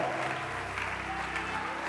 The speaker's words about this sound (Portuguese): Receba do novo azeite do Senhor, dê um brado neste lugar e aplaudam se você entende o que estou dizendo.